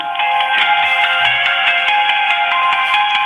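A trap song plays loudly and continuously through a small, tinny speaker, its sound thin and lacking any deep bass, with no one talking over it.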